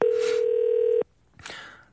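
A steady, loud single-pitch telephone tone holds for about a second and cuts off abruptly, followed by a brief softer burst of noise, as a radio show connects a phone call to a listener.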